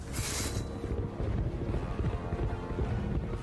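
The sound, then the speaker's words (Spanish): Horse hooves clip-clop in a quick, steady run of dull thuds over a constant windy rumble with a brief hiss at the start. “José, montado en su caballo, cabalgaba lentamente. Al verlo, Nazario encarreró su caballo con un machete en la mano.”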